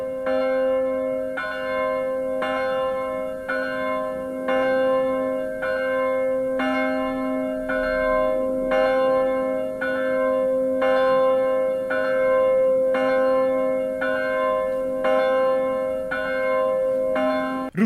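The bell of the Maranatha church in Lunteren rings steadily, its strikes repeating roughly every second and a half, with a deep humming resonance sustained between them. The ringing is loud and continuous, with no voices.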